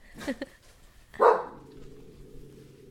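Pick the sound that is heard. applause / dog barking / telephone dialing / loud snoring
dog barking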